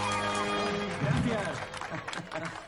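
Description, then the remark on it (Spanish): Scattered applause from a small group of guests at a party after a live band's song, a patter of claps that builds in the second half, mixed with murmuring voices and lingering tonal sound underneath. “Marnie y Mark aplauden entre los invitados.”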